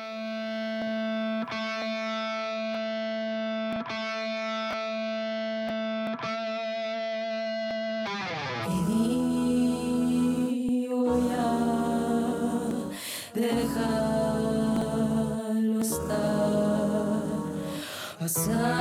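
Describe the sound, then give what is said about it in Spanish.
The most fusion-style song of an EP opens with a steady, buzzing distorted tone held for about eight seconds, then a loud full band crashes in with driving drums and dense, effects-heavy instrumentation. “Y, bueno, es la canción como más em, extraña de todo el EP porque es la más fusión. Vamos a escuchar.”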